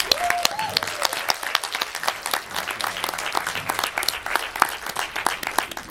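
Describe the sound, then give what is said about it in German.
An audience at a church service applauds steadily in advance for the JKB music team from Lichtenberg, many hands clapping in a dense, crackling patter that holds an even loudness throughout, with a brief faint tonal whistle near the start. “Und vielleicht können wir ihnen einen kleinen Vorschussapplaus geben. Applaus”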